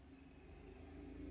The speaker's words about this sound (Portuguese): Peço desculpa pelo barulho de moto, porque tem uma hamburgueria aqui do lado de casa e o motoqueiro sai e chega toda hora.